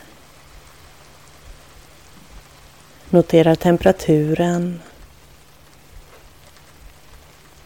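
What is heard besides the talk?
soft rain falling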